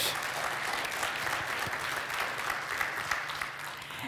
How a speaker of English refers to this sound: Can we go ahead and give a round of applause just for the leadership here at Grace Church?